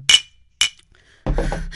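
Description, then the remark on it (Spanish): Two sharp, bright glass clinks half a second apart, then a steady, fuller rushing sound like a drink being poured into the glass. No one speaks. “Se sirve un trago.”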